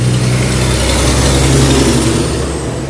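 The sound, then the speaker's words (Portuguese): A small truck rumbles past outside, its steady low engine drone filling the moment before easing off slightly as it moves away, with no voices. “Ó, oh, o caminhãozinho passando.”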